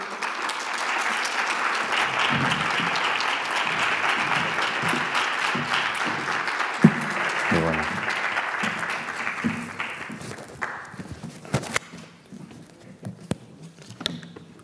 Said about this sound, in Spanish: Así que mm, doy la bienvenida nuevamente y le pedimos un aplauso a, Rafael Santandreu.